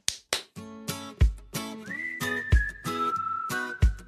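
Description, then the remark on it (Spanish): A short, lively instrumental music interlude: punchy rhythmic chords with sharp percussive hits, then a sustained whistled melody gliding over the beat. Loud, with no voices. “¡Música!”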